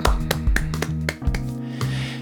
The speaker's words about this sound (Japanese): タイトルの通りようやく、えー、アルバムの、えー、告知がというかアルバムのリリースが、えー、できるようになりました拍手